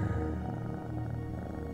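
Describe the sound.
A person imitates a cat's purr while breathing out during a relaxation breathing exercise: a low, steady rumbling drone that continues unbroken, moderately loud, with no speech.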